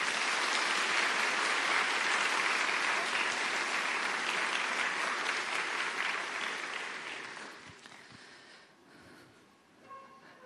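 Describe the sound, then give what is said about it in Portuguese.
A crowd claps steadily in a dense, sustained wash of applause for several seconds during a religious sermon, applauding the woman of the Book of Revelation, then it thins out and fades away toward the end, leaving a few scattered claps. “Aplaude mais uma vez essa mulher.”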